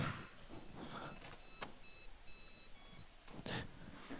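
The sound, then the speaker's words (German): A run of short, high-pitched electronic beeps from a device that can play music as a phone is paired with it, several quick tones in a row, with some rustling and handling noise around them and no one talking. “Kann mein Handy damit koppeln. Jetzt piept's.”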